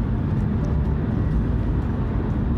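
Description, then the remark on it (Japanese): Steady low rumble of a car interior while driving, a constant droning road and engine noise filling the space with no breaks or distinct events. “多分ほとんどの収録車でやってるんであこれ車だなって分かると思いますけど今運転中です、まあ、用事があって今、まあ、の車運転してるんですけど”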